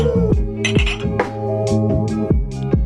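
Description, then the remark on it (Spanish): A ceramic mug clinks several times in quick, irregular succession as it is taken out, bright knocks ringing briefly over a steady tonal background, with no one speaking. “Saca tu tazón.”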